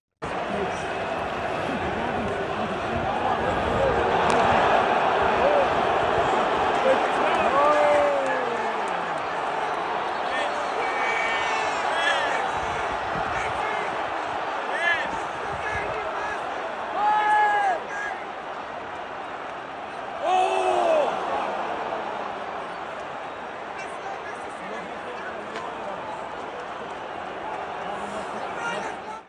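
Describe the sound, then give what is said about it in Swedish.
A large, agitated crowd of Melbourne Victory football supporters roars and shouts continuously as they storm the pitch in Australia during a match against Melbourne City, with whistles and yells cutting through and sudden surges of noise. “Ja, som sagt, eh, supporterna kastar in någon form av pyroteknik och sen skickar målvakten tillbaka det på läktaren och då blir de skogstokiga och springer in och de träffar målvakten med något föremål i huvudet.”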